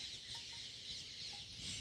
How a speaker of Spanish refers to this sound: El gallo, que vio cómo todos se arrodillaban, pensó que era por él y levantó el vuelo y volando por el cielo cantó para anunciar la salida del sol.